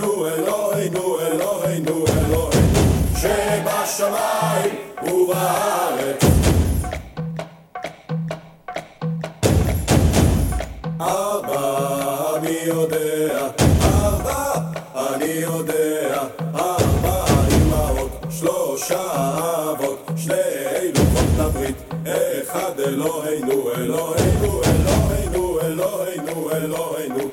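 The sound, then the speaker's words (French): A Hebrew Passover counting song, a song-prayer, is sung in a looping way that repeats earlier lines. The lyrics count up to three, including 'two tablets of the covenant' and 'one is our God'. A steady melodic line sits over full instrumental backing, with heavy drum hits every few seconds. It is loud and continuous throughout. “c'est une chanson, euh, c'est une prière”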